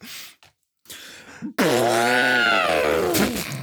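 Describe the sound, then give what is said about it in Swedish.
A person imitates a lion's roar with a loud, sustained throaty bellow of about two seconds whose pitch rises and then falls, preceded by a few short breathy huffs. “Alltså, jag kan göra lejon. en gång till.”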